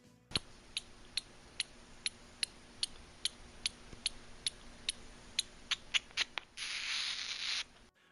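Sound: little brown bat calls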